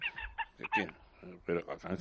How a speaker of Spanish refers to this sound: son, mis, gallinas de Java que se han peleado, están peleados aquí en el jardín.